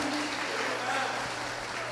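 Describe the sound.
A standing audience at a worship service applauds in a steady, dense wash of clapping that holds at an even level for the whole two seconds, over a low constant hum and faint voices.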